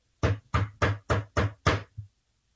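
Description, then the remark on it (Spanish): Six firm, evenly spaced knocks on the wooden door of a house, loud, followed by a softer seventh tap, with no voices. “Es que golpeó a la puerta de la casa.”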